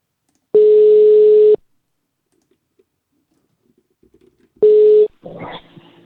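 Two loud, steady electronic telephone tones about a second each, separated by a few seconds of near silence with faint clicks, followed by a burst of dialing and line noise as a call is placed on a second telephone.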